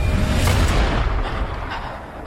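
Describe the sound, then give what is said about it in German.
Loud gunshots ring out, a booming burst with heavy low-end rumble that slowly fades over a couple of seconds, the shots hitting a police officer. No one speaks. “Die Schüsse treffen den Polizisten.”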